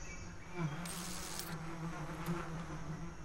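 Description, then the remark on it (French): A steady, droning buzz of many bees swarming around a hive, a continuous low hum with overlapping wingbeats and a few brief bursts of brighter noise, no voices. “Et il va sourire en mode Ah, je vais te faire courir avec les abeilles.”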